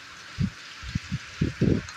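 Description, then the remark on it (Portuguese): A steady, dense hiss of heavy rain at a quarter past midnight, falling at a house set high up, broken by several soft low thumps, like gusts or heavy drops striking something. No one speaks. “Agora são meia-noite e 15 e tá chovendo muito, muito, muito, muito.”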